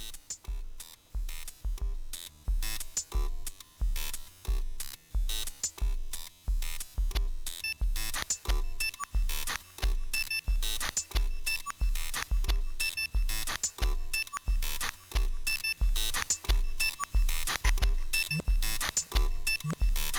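An electronic music track with a steady, punchy drum beat and bright, beeping synth tones running throughout, loud and up close with no voices.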